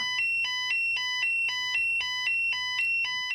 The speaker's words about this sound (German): Da lässt unser heutiger Gast sofort alles stehen und liegen, denn dieses Piepsen des Funkmeldeempfängers, das bedeutet Einsatz und zwar sofort.